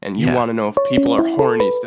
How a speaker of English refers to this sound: Oh, that's a phone call. Yeah, it is.